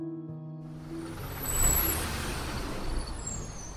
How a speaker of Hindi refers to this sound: कुछ ही देर में वैन घर घर आई तथा अपने पीछे काला सफेद धुआं और घरघराहट की आवाज छोड़ते हुए गली के दूसरे सिरे की तरफ बढ़ गई